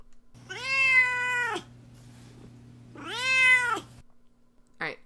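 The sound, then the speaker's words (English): A cat named Duarte meows twice, long drawn-out cries separated by a pause, with a low steady hum underneath and a short faint sound at the end. “Well, now it's time for Duarte's Corner, where my cat Duarte gets to share his opinions about the book.”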